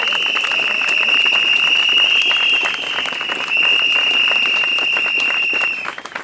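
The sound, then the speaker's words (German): Loud, dense crowd applause at a strike-ready union protest rally against the employers of the Tarifgemeinschaft der Länder over a wage agreement, steady clapping for about six seconds with a sustained shrill whistle-like tone running through it, tapering off at the end. “wir haben nicht genug Geld. Und ich sage, wir rufen unseren Arbeitgeberinnen der Tarifgemeinschaft der Länder zu, nein, wir nehmen das nicht hin, denn wir sind streikbereit. Applaus”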